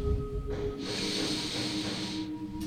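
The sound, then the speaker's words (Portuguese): The final long, deep breath of a guided breathing exercise, drawn in through the nose, a steady airy hiss that swells and holds for about a second and a half before fading, clear with no talking. “Inspiramos pelas narinas.”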